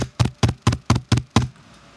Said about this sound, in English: Open up, Red Boy! The monkey pounded on the cave door.